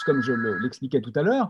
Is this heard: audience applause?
no